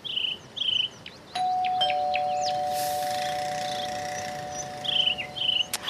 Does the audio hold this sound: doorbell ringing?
yes